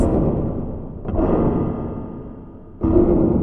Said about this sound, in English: It. It sounds like. Someone. Someone's banging on the top of the dome.